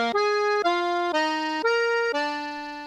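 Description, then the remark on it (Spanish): Accordion music: five sustained, reedy notes played one after another, each held about half a second at a steady, fairly loud level, with no voices. “Se oyen los acordeones.”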